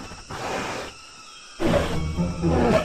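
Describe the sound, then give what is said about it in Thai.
A frightening monster's deep, menacing roar rumbles out in two long growling bursts separated by a brief pause, the second louder and fuller, with no talking. “ทันใดนั้นเองก็ได้มีเสียงคำรามอันน่ากลัวและอสูรก็ได้ปรากฏกายขึ้น”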